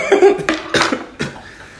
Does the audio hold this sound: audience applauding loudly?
no